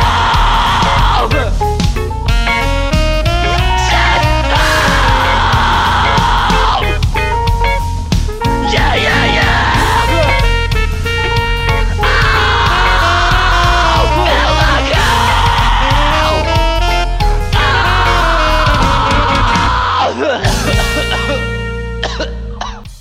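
A loud rock song plays continuously, with dense distorted instruments, pounding drums and harsh, shouted vocals throughout, ending with a brief drop near the close.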